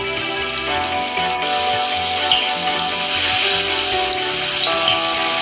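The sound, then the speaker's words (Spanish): Tofu frying in a pan, a steady loud hiss and crackle of sizzling oil that runs the whole time, with a low hum of music underneath and no voices. “Ahora en una sartén Voy a freír el tofu porque me gusta que quede un poco crujiente.”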